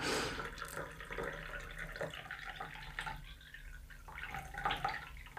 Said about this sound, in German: Wie kann man denn so langsam eingießen?